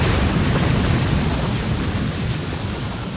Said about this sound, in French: Et les réserves de poudre du navire amiral de la flotte française, en flammes, explosent, coulant le navire.